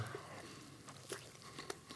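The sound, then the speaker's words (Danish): Quiet bites and chewing of a flaky rhubarb pastry, with a few soft crunchy clicks spaced irregularly over a couple of seconds and no talking. “Nu er så på at spise tre af de her.”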